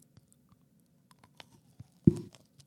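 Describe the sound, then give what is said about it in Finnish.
Quiet mouth sounds of eating ice cream, with small scattered clicks and smacks, then one louder crunchy bite near the end followed by a moment of chewing. “Sä keksit tähän uuden ohjelmaan, jossa sä luet jäätelön erilaisia ainesosia, sitten sä taas mussutat sitä siinä.”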